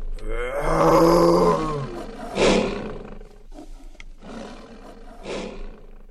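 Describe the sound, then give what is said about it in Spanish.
A lion roars loudly, a long rumbling bellow with strong harmonics, followed by a few shorter, breathy grunting roars that trail off. “Finalmente, el león hizo lo único que se le ocurrió miró fijamente al señor Mosquera, luego abrió su bocota y rugió el rugido más fuerte que había rugido en toda su vida.”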